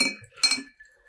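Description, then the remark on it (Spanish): Glasses clink together in a toast, a bright ringing chime with a short shimmering tail, preceded by fainter ringing from an earlier touch. No one speaks. “Antes de cerrar, digamos salud.”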